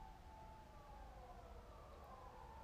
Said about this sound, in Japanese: サイレン鳴ってますね聞こえますでしょうか今朝6時20分なんですけれどもね